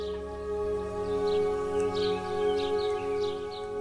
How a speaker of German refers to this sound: Aus den Bäumen hörst du die Vögel zwitschern.